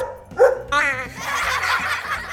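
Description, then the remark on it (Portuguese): A dog named Badabim barks excitedly, a quick yap followed by a longer wavering, yelping cry, loud, with a busy background sound continuing underneath. “O cachorro Badabim e a iguana Badabum estão animados.”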